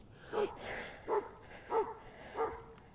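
A dog barks four times at a steady, unhurried pace, each bark short and fairly loud, with brief pauses between them and no voices.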